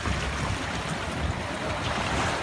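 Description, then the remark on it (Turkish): Continuous roar of rough water and waves churning around boats moored at a fishing shelter in Erdemli, Mersin, during a storm that swamped many boats and rowboats; loud and steady with gusty wind, no voices. “Erdemli'de balıkçı barınağına bağlı pek çok tekne ve kayık suya gömüldü.”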